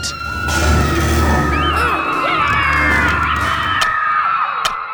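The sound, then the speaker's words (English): A loud, dense crowd of about 200 children in a camp dining hall screams and shouts during a food fight, throwing the food from their plates, voices overlapping continuously, with a couple of sharp bangs cutting through near the end. “200 kids picked up the food on their plates and started to throw it.”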